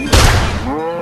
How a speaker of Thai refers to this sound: แล้วลูกหมูป่าก็ได้ยินเสียงปืนหมูป่าได้ตกใจหันมาทางเสียงนั้น